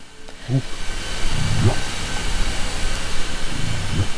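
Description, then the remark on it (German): Short, low whale contact calls of the kind whales use in Glacier Bay, a brief upswept "whup" repeated about three times at irregular intervals, faint against a steady hiss of underwater noise. “Der ist sehr kurz und prägnant und klingt etwa so.”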